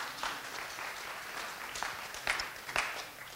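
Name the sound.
audience applauding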